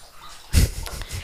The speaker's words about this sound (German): So, der Hund trinkt. Der Hund trinkt.